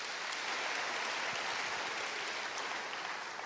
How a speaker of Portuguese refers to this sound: Dá um aplauso ao Senhor em nome de Jesus.